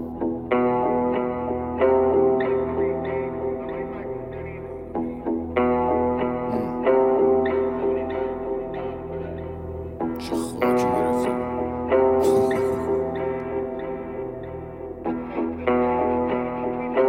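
A rap diss track plays loudly and continuously, built on a looping, repeating instrumental phrase with a steady beat and brief brighter bursts near the middle.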